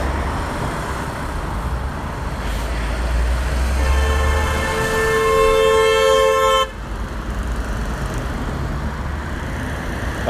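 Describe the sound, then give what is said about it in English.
A loud, sustained car horn blares for about three seconds over a steady rumble of road traffic at a roundabout, then cuts off abruptly while the traffic noise continues. No one speaks. The horn is sounded at a woman in a tiny car trying to undertake a truck. “a woman in a tiny little car trying to undertake a truck. And she pulled out after the truck was already halfway round the roundabout.”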